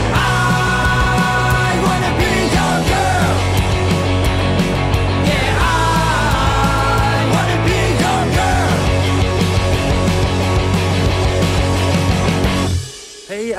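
A song plays loud and full, with steady bass and layered melodic parts running continuously, then drops away abruptly just before the end.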